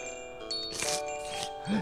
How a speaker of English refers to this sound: did you ring that bell? I ring this bell whensoever it is time for your afternoon cocaine, sir.